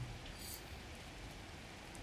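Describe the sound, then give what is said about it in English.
Steady rain that has not let up for days pours down during a storm in an even, unbroken hiss, with a few scattered droplet ticks on top. The sound is fairly soft and constant, with no voices. “Somehow, the rain the past few days hasn't let up, and the storm above kept raging on.”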